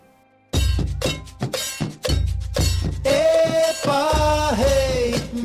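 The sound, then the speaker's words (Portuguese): A recording of the Maracatu Fortaleza nation's 2010 procession, themed on Bárbara Alencar and the warrior Yansan: loud, heavy drumming and a clanging bell kick in abruptly with a driving beat, then a chorus of voices joins, singing a sustained chant to Yansan over the percussion. “Não por acaso, a nação Maracatu Fortaleza associa a história de Bárbara Alencar com a guerreira Yansan, a rainha dos ventos e tempestades do candomblé, para o cortejo de 2010 que vamos ouvir agora.”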